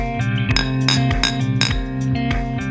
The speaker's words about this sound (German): Ja, das, ist, äh, das war richtig. Das klang ja fast wie zwei Bierflaschen aneinander.